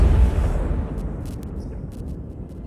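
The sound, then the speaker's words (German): A loud, deep gunshot boom from a .500 caliber (12.7 mm) revolver opens, then rolls away in a long, rumbling echo that slowly fades over a couple of seconds, with no voices present. “Dein Daumen am Hammer zieht ihn nach hinten, dein Zeigefinger am Abzug spannt sich immer fester und fester.”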